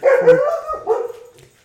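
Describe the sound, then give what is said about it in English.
A dog barks inside a house, a couple of loud barks trailing off into a softer whine-like tail, with no talking over it. “Excuse us, dog. There was a dog in this house.”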